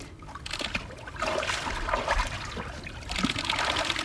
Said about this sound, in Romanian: de trei ori s-a băgat în apă, de mhm. fiecare dată închinându-se, probabil că ăsta este obiceiul.